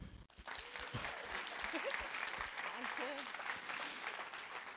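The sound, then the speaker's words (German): Sustained applause from an audience as the speaker's wife is invited onto the stage, a dense steady wash of clapping throughout, with a few voices calling and murmuring underneath. “Ein Applaus!”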